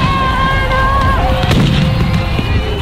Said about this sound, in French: Les forces de l'ordre ont tiré plus de 4000 grenades en moins de deux heures. Comme vous pouvez l'entendre sur ce son, c'est une explosion toutes les deux secondes.